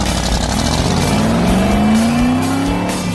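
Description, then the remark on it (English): A loud 1965 Shelby Cobra sports car engine revs and accelerates, its pitch climbing steadily, while a high tire squeal cuts through the roar. No one speaks. “Behind the wheel of his 1965 Shelby Cobra”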